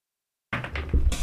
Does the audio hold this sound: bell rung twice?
no